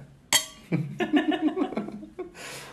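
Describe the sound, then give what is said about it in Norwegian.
A single bright clink of glasses touching in a toast, ringing briefly, followed by a voice laughing or chuckling and then an audible breath. “Ja, skål for det. Skål for det.”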